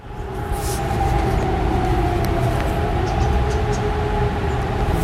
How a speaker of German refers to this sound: Und bei den Sirenen, die hessenweit ja losgegangen sind, beziehungsweise losheulen sollten, war es so ein bisschen unterschiedlich. In Frankfurt, da ging es zwei Minuten Minuten nach 11 Uhr los und das hörte sich so an.